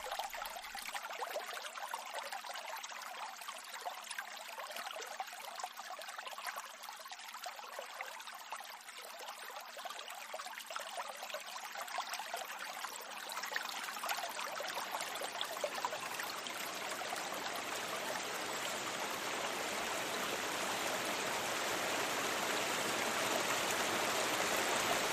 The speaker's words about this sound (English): sound you're listening to is when that trickle is still a small river. This is way upstream, the river running in the Glenasmole Valley near its source.